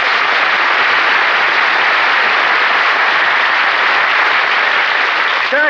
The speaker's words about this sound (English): we're all going to be in the play, why did you give just him applause?